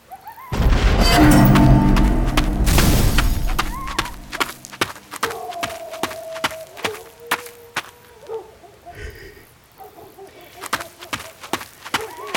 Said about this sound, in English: I don't know what that explosion was back there. I don't know what it was,